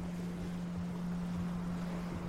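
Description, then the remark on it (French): A steady, very regular sea wind blows in a constant, even rush at sea about 10 degrees south of the equator under grey skies, joined by a continuous low motor drone like a boat engine running. No voices are heard. “Il y a un vent euh, très régulier.”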